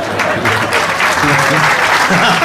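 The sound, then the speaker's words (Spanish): A crowd applauds steadily, a dense wash of clapping hands that stays loud and even throughout, with some voices mixed in underneath. “Un solo aplauso.”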